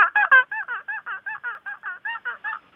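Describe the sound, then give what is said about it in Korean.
A voice imitates a squeaky window being wiped, with about fifteen quick, rhythmic high-pitched squeaks in a steady run. The first few are louder and the rest stay even. “창 닦는 소리요. 창문 닦는 소리.”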